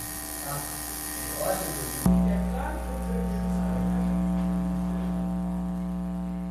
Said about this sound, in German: So klingt etwas, das wir alle kaum wahrnehmen können. Das Summen einer Überlandleitung, das hier hörbar gemacht wurde.